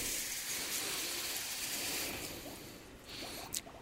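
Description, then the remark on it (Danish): A steady rush of water pouring from a tap that now and then turns on by itself, a continuous bright hiss that holds evenly for several seconds, with a brief splashy flutter near the end. “Ja, det var en vandehænd, der en gang imellem tænder.”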